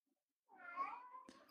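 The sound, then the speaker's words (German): A single drawn-out meow from a cat sitting at a door wanting to go out, fairly clear, ending with a soft clicking rustle, with no one talking. “Ja, die, die Katze sitzt an der Tür und möchte gerne raus, deswegen miaut die die ganze Zeit.”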